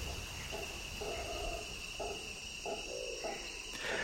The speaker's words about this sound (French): On entend d'abord les chants des insectes et des grenouilles.